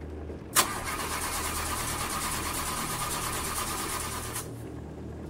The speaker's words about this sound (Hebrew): לפתע, בלי התראה מוקדמת, באמצע כביש בודד וחשוך, המנוע של הטויוטה שלי הפסיק לעבוד.